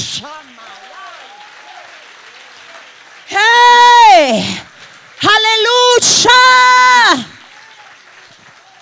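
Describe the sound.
Steady audience applause runs beneath two loud, drawn-out shouted exclamations from a man's voice, with the clapping continuing softly after the shouts end.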